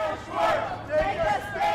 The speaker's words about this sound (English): On a bitterly cold Saturday morning in January, about 60 protesters marched to the home of Washington, D.C. City Council member Carol Schwartz, who hasn't been helping them slow gentrification in the city.